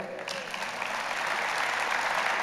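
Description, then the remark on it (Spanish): An audience breaks into steady applause for a pastor who got engaged, a dense wash of many hands clapping that swells slightly and holds at a full, even level with no voices over it. “Un aplauso a ella.”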